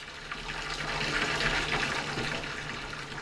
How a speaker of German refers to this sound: Sie ging zur Wanne und drehte den Hahn auf. Das Wasser rauschte dampfend in die Wanne.